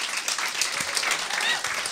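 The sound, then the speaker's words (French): Steady audience applause for the sponsor Planet Oster, a dense wash of many hands clapping at a constant, fairly loud level throughout, with no pauses or individual claps standing out. “je veux remercier Planet Oster, Planet Oster, qu'on peut applaudir en ce moment.”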